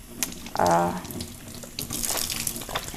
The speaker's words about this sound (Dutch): Ik was een waterfles voor mijn kleine.